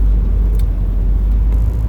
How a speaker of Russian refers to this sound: О, ребята, вы куда? У нас тут буксуют уже, блядь. Свернули во двор и забуксовали. Да, зима началась, зима началась.